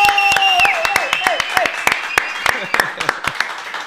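Audience applause: a run of sharp, fairly loud claps at an uneven pace, with high, sliding vocal cheers or whoops rising and falling above the clapping.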